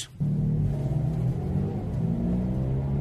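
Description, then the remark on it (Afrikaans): A Mazda CX-3's engine cranks and catches quickly after a brief quiet moment as its i-stop stop-start system restarts it when the brake is released at a red light, settling into a steady low idle rumble, with no one speaking. “Daar skakel die masjien nou heeltemal af by rooi lig en eers wanneer ek die rem los.”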